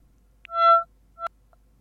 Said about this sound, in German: Äh, hier könnt ihr die Töne jedenfalls auswählen, ähm, die Warnungen. abgespielt werden sollen, wenn irgendwo ein Blitzer auftaucht